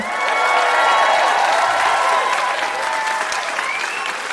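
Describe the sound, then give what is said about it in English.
A large live audience at the Hot Docs Theatre in Toronto, Canada, applauds steadily, with scattered cheers and whoops rising over the dense clapping, sustained at full volume for several seconds. “you can hear that we have a fantastic live audience here in Toronto, Canada, at the Hot Docs Theatre. Let's hear it from the audience to everybody listening at home.”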